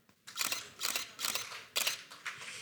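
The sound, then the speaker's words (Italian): A quick, steady series of camera shutter clicks, about six crisp bursts spaced roughly half a second apart, clear with no voices, from Annie Leibovitz's photo shoot for a Vogue cover. “c'è però una persona che più di tutte ha il fiuto per le tendenze del futuro, un'accanita amante del tennis, Anna Wintour, che le fa immortalare con gli scatti di Annie Leibovitz sulla copertina di Vogue.”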